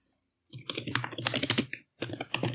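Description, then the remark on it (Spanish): Rapid clatter of keys on a computer keyboard, a dense burst of clicks for over a second, a brief pause, then another quick flurry of typing. No voices. “Es una locura, me encanta, el teclado.”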